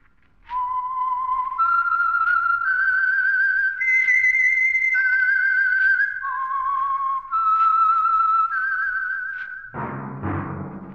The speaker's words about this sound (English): That whistle is your signal for the Signal Oil Program, The Whistler.